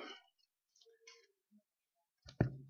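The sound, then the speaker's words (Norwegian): Soft papery rustles and light clicks of Bible pages being turned forward to Galatians chapter 5, ending in a sharper, louder flutter with a dull thump. Fairly quiet, with no talking. “Og Så blar jeg videre til eh, det siste i Galaterbrevet, kapittel 5.”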